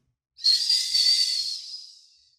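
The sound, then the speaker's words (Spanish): A soft, airy whistle holds one high steady note for about two seconds, breathy and gentle, then slowly fades away. No one speaks. “Luego en un silbido apacible”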